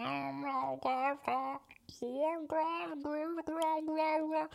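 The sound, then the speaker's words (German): A person's voice imitates the mating yowl of a female cat in heat that meows all night looking for a tomcat, with a series of drawn-out, wavering wails that rise and fall in pitch, loud, one after another. “Und jetzt ist sie halt ultra fucking horny und miaut die ganze Nacht rum, weil sie so einen Kater sucht.”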